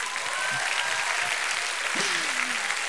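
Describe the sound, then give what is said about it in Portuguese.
An audience applauds the Lord steadily, a dense, even wash of clapping filling the whole clip at a consistent loudness, with a brief voice rising faintly beneath the clapping. “Você pode dar uma salva de palmas pro Senhor.”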